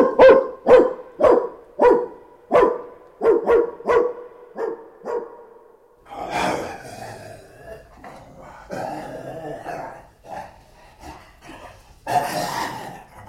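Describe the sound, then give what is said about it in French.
A dog barks about ten times in a quick, steady, loud series, followed by several seconds of rougher, noisier bursts. “On n'a pas voulu que tu les défendes, c'est cela mais c'est toi, mon brave chien, qui les vengera.”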